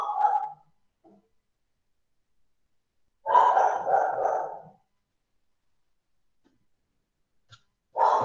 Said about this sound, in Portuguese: é, é, é o seu cachorro no fundo aí? Eu vou fechar aqui, peraí. É que ele é chato, cara. Atrapalhou muito aí?